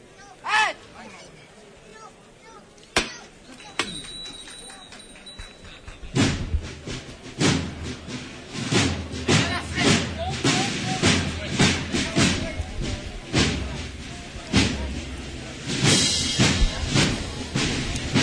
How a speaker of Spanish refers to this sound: que va en el cuerpo de Capatace y que se dispone a llamar de nuevo al llamador.